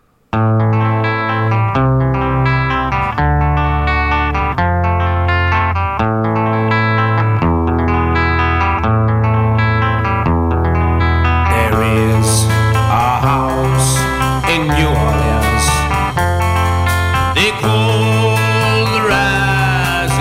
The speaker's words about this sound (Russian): но я думаю, что огромное количество людей любят э, вот этот вот гитарный риф. Э, и это даже не риф, хотя и, и, можно его и рифом играть, но так-то играется фактически перебором